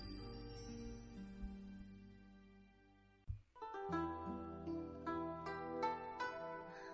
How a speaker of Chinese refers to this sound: 一阵风吹过，银铃叮当，空灵的铃声如来世般飘渺，不可追寻。